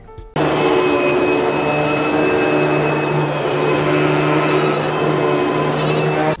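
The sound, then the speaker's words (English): A vacuum cleaner switches on abruptly and runs at a steady, loud whine with a constant low hum for several seconds, then cuts off at the end. No one speaks. “Vac your Mac.”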